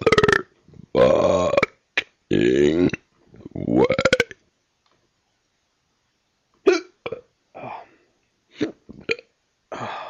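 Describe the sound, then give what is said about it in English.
Several long, loud, drawn-out belches, then after a few seconds of silence a string of short, sharp hiccups at irregular intervals, brought on by the belching, with no talking. “Gave myself the hiccups doing that.”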